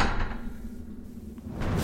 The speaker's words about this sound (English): D12 Bravo kicks down a door.